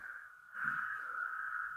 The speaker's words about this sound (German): Ich glaube, die Zuschauer hören auch die Kröten.